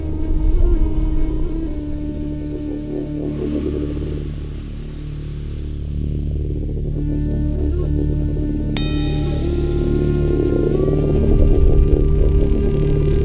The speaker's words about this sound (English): And now, at the beginning of this track, I added a uh, flute, quite low flute. I have one it sounds like this.